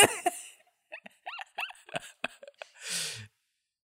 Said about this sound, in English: just sneezed.